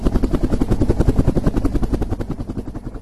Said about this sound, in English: At 89 degrees north, the ship's helicopter is loaded with instruments for the first time. Then the scientists fly ahead to an ice floe, selecting a suitable landing spot from the air that the ship will pass in about an hour.